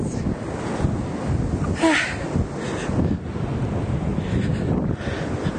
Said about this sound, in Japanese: いまだには誰もいません波が強い風が強いよ